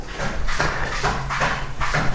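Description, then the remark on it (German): A male cat scratches around in its litter box, a steady series of about five gritty, rustling bursts at a regular rhythm, moderately loud with no voices. “na, ihr hört, mein Kater, der ist auf Klo, soll er doch.”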